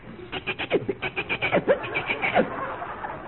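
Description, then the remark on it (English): A human voice imitates the wild chattering of jungle monkeys: a quick, steady string of high, yelping syllables with a few rising squeals, fairly loud, lasting about three seconds. “The wild chattering of the monkeys.”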